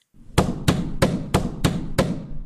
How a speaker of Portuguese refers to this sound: Pouco tempo depois, bateram na porta. Não eram batidas comuns, e sim batidas fortes.